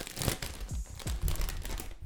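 A bag of potato chips is torn open, with loud crinkling and crackling of the plastic in irregular bursts and a couple of sharp rips, no voices.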